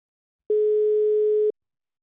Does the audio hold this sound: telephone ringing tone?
yes